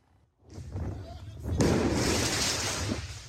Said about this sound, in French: À Paris, les dégâts de la soirée du 14 juillet sont importants. Des actes de vandalisme, mais aussi de violence, comme ici dans le 20e arrondissement, où des pompiers en pleine intervention sont visés par des tirs de mortier.